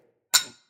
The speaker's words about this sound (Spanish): Brinda con tu agua, aunque dicen que son. Bueno, pero el agua es agua bendita que siempre viene bien.